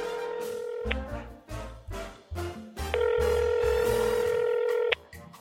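A phone call being placed: a steady tone plays, then quick dial beeps, followed by a long sustained ringback tone that cuts off, heard clear with no talking.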